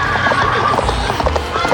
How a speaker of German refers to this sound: also das Pferd geht halt durch und rennt halt irgendwie so in die Pampa und ja.